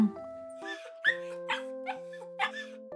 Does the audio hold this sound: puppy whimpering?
yes